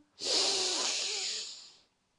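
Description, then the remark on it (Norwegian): A long, steady inhale drawn in through the nose during a repeated breathing exercise, an airy hiss lasting under two seconds and holding fairly even before tapering off, with no talking over it. “Pust godt inn gjennom nesa.”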